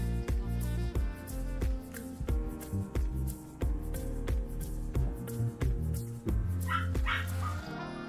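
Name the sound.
dog barking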